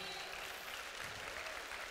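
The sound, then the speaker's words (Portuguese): A crowd claps steadily, a dense wash of many hands applauding at even loudness throughout, with no single voice standing out. “Você não precisa bater palmas.”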